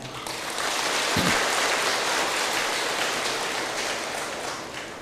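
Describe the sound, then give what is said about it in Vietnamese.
An audience breaks into sustained applause as a pledge of commitment, a dense, steady wash of many hands clapping that holds for several seconds before tapering slightly toward the end. No one speaks over it. “nếu quý vị thấy là việc này là làm được thì hãy cam kết bằng những tràng vỗ tay”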